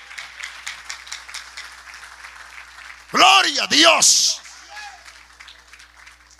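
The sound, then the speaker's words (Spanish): An audience claps and applauds steadily for Jehovah at a preacher's call during a sermon, a dense crackle of many hands, while a loud voice briefly shouts out over the crowd in the middle. “Dale un aplauso a Jehová.”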